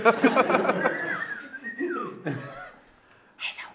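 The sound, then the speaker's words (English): Someone whistles a short, airy, wavering tone that slides up and down, after a few breathy, rhythmic puffs of air, with a soft huff near the end. Fairly quiet. “I can't whistle.”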